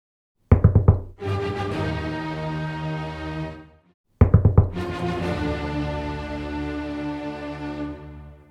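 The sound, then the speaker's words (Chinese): Two rounds of knocking on a door in a Little Red Riding Hood story, each a quick cluster of about three sharp raps followed by a long, ringing tonal tail that slowly fades. There is no talking. “小紅帽，這次又是誰來敲門呢？”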